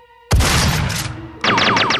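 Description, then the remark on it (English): A sci-fi cosmic cannon, fired accidentally by Smith at a pool of water, goes off with a sudden roaring blast and low boom, then a run of four or five warbling, downward-sweeping electronic zaps. A faint hum precedes it; no one speaks. “Just then, Smith accidentally fires the cosmic cannon at the water,”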